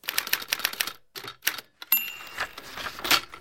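A quick run of sharp mechanical clicks and clatter, then a bright tram bell rings out and lingers, its metallic tone hanging over faint rattling noise. No one speaks.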